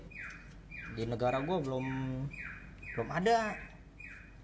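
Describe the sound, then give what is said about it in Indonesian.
A bird chirps and calls repeatedly, sharp bright tweets recurring about every second, clear, while a person talks over part of it. “Suara itu suara burungnya genit kiu kiu kiu yeah.”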